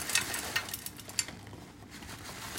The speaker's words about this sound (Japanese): 節をカラカラっと入れている音です